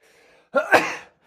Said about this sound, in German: Gesundheit